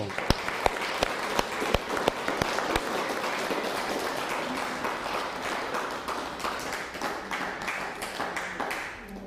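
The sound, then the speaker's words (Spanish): Applause from an audience: a few sharp, separate claps at first, quickly swelling into a dense, steady patter of many hands clapping at once, sustained at even loudness with no voices. “Un fuerte aplauso.”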